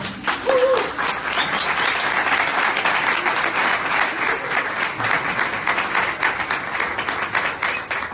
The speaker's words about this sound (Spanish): Así empezamos con un aplauso.